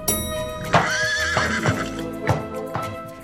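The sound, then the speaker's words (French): A pony neighs in a long, wavering whinny while hooves clop in a few sharp, uneven knocks; no one speaks. “Et son fils a même fait monter son poney dans l'ascenseur de la Maison Blanche.”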